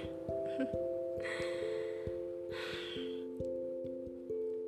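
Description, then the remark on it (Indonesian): A slow, deep breath drawn in two soft airy pulls, over steady background music with no talking. “Aku tarik nafas dulu deh.”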